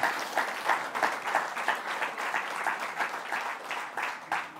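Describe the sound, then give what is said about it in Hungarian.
Sustained applause from an audience thanking a person, who is presented with a flower, for all they have done: dense, steady clapping with a rapid, uneven rhythm, fairly loud and continuous for the whole stretch, with no voices standing out. “És egy nagy tapsot adjunk annak a sok-sok mindenért, amit tett”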